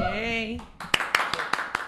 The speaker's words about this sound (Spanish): Señores, un fuerte aplauso para Luxana.